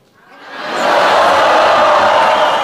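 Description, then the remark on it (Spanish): An audience group called the 'friendly' side breaks on cue into a loud, sustained collective shout that swells within the first second and holds steady, a dense roar of many voices yelling together. “Griten los amistosos.”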